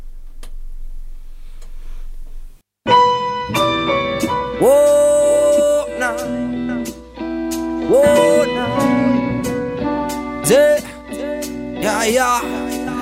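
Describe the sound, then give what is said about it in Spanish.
A Chilean hip-hop track kicks in after a couple of seconds of near silence, with a steady beat, deep bass and layered melodic samples playing loud throughout. “Vamos a una canción antes de terminar, gente, porque se nos está acabando el tiempo.”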